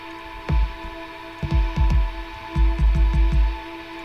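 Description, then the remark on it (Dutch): Deep, punchy kick drum hits, added under a reverb-drenched sample, land in an uneven rhythm beneath a sustained, reverberant tonal pad, with a steady droning hum running throughout and no voices. “Nou, en als je dan hier alleen al een kick onder zet.”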